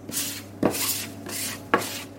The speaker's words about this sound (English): In the back of the bakery, Nadia Nastuyascha is rolling out dough for Khachapuri.